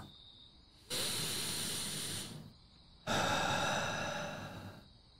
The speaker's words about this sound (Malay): Seketika kemudian, Tok Alang menarik nafas panjang.